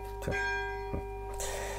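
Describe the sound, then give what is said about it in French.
A church bell rings with a sustained, shimmering tone that hangs in the air, struck twice in quick succession. “La cloche qui m'annonce, ça va être un peu plus long là, ça va être un peu plus long.”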